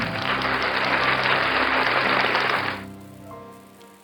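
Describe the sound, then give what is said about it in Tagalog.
An audience at a morning church prayer bursts into loud, sustained applause for the Lord, a dense wash of clapping hands that lasts a few seconds before quickly fading out. “Palakpakan po natin ng malakas ang Panginoon.”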